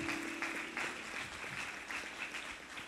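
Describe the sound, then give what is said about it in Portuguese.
An audience applauds God in a steady, dense wash of clapping that holds at an even level throughout, with no one speaking over it. “Aplaude a Deus por isso.”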